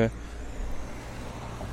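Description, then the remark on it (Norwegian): Steady low rumble of road traffic along a street, a car droning past, with a brief voice at the very start and the engine noise swelling slightly toward the end. “Det er fortsatt med en bilvei, folkens, så dere får bare eh, smøre dere inn med eh, tålmodighet og toleranthet.”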